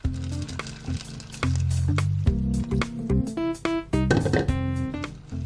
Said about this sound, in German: Erstmal die Sojabohnen waschen. So, die sind sauber. Kommen jetzt in diese Schüssel. Und dazu kommt nochmal Wasser, damit die Sojabohnen schön einweichen können.